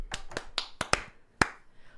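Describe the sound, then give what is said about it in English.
A handful of sharp, crisp claps, five coming quickly in an uneven run and then one louder clap after a short pause, with no talking. “Uh, let's give a little clap so we know how to market.”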